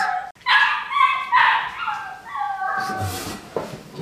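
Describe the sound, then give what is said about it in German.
A puppy whines in a string of high, drawn-out cries, then lets out a few short, sharp barks and yips near the end. The sounds are loud and clear, with no talking. “Und jetzt fängt gleich der andere an zu schreien. Habe ich es gerade schon im Hintergrund.”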